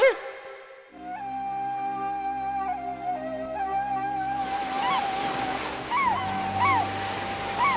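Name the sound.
ocean waves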